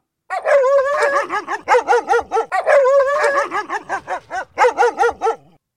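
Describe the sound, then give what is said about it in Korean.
Two dogs bark, played as a sample for listeners to imitate in a dog-barking imitation contest: a rapid, overlapping stream of high, yappy barks, some stretched into short whiny howls, loud and continuous for about five seconds with no talking. “오늘 여러분들이 흉내 내야 되는 개 짖는 소리 샘플을 한번 들려드릴게요.”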